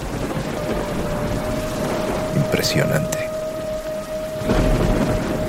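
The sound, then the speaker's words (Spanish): Heavy torrential rain pours down steadily outside as a dense wash of noise, with a swelling rumble of thunder near the end and a brief sharper crackle partway through. “Afuera la lluvia torrencial arrecia y la curiosidad de Kala crece aún más.”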